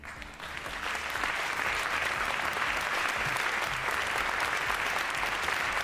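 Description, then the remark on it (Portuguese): Sustained applause from a crowd, a dense, steady wash of many hands clapping that swells in the first second and then holds at an even, loud level with no voices standing out. “As palmas, as palmas são o alimento da alma de quem pela arte procura deixar marcas, de quem quer o reconhecimento.”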